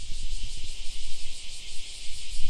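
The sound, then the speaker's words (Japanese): A dense chorus of cicadas in the forest behind a baseball field in Haebaru, in midsummer, buzzes continuously in a loud, shrill, high-pitched drone with a faint pulsing shimmer, over a low rumble and with no voices. “南風原のセミとともに”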